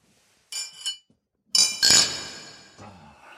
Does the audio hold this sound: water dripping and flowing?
no